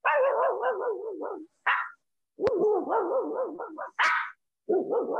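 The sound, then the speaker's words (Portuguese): A person vocally imitates the barks of a shepherd dog, a pinscher and a mongrel, running through several different bark styles in quick succession: long wavering yelps broken by short sharp bursts, loud with brief pauses between. “Então tem o pastor, tem o pincher que é. O vira-lata, que é o longe, que o pastor é para fora, o pincher, é para fora e o vira-lata é.”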